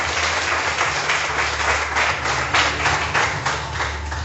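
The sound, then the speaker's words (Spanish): An audience applauds loudly, a dense, steady wash of many hands clapping that holds for several seconds with slight swells, no voices standing out above it. “Déselo si va a aplaudir con fuerza.”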